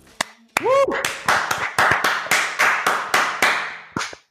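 Applause in a quick, steady rhythm of loud, sharp claps, about a dozen bursts in four seconds, with a brief rising-and-falling whoop near the start.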